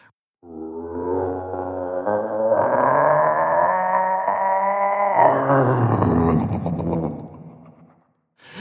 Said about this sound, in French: C'est à ce moment-là, toi un grondement inhumain s'est élevé de la terre.